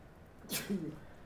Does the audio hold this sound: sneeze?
yes